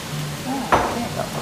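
Steady hissing crackle of chicory sizzling in olive oil in a pan, with one sharp clink of a utensil midway and faint murmuring voices in the background.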